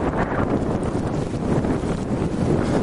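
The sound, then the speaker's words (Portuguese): Steady, loud wind buffeting the microphone at the seashore as the tide comes in, a constant low rumbling roar with gusty fluctuations throughout and no talking. “agora vai fazer mais barulho do vento, né?”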